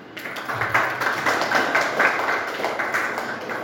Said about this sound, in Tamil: very good அப்படின்னா உங்களுக்கு முதலில் ஒரு கரகோஷம்